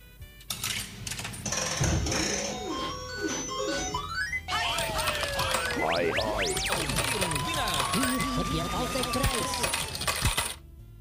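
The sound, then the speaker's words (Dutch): Coins are dropped in one by one and clatter against metal, fairly loud, over a busy wash of electronic beeps and sweeping machine tones lasting the whole stretch. “Nou ja, er zijn toch nog drie muntjes”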